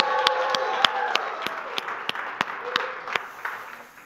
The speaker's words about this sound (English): Radiant Church, you give a big shout out to Isaiah, applaud, shout, whatever.